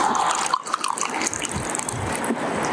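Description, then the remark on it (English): Steady stream of steaming hot water poured from a kettle, a continuous splashing gurgle with a slightly rising pitch as the vessel fills, lasting the whole few seconds with no voices. “I would actually if you're putting the kettle on.”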